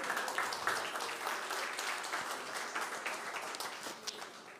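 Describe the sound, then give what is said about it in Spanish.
A church audience applauding as an applause to the Lord: steady, dense clapping from many hands, sustained at an even level throughout without breaks. “¿No les pone contentos? vuelvo un aplauso al Señor entonces.”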